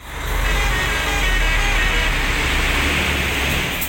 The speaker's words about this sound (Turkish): Tem Otoyolu'nun Ankara yönüne seyreden tüm araçlar Kaynaşlı gişelerinden D100 Karayolu Bolu Dağı geçişine yönlendirildi ve bu yüzden trafik yoğunluğu yaşandı.